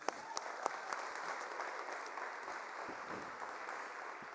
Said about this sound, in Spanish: Si estás aquí por primera vez, este aplauso es para ti.